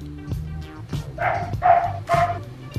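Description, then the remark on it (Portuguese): A small dog barks three times in a steady rhythm, sharp yappy bursts from the back of a yard, over a low background hum. “Ó, o cachorrinho aí no fundo do quintal tá lá, tá concordando, hein?”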